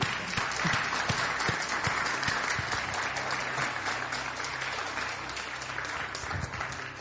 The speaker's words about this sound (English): I think we can clap that.